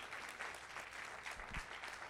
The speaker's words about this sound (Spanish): ¿Alguien le puede dar un aplauso al Señor por cada persona que ha escrito una historia con Dios?